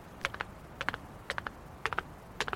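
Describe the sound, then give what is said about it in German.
Heavy hoofbeats on dirt and stones clop along in a steady galloping rhythm, five quick clusters of three sharp strikes each, fairly faint and with no voices. “aber der Frosch hat Hufe, wie wir gerade im Hintergrund hören.”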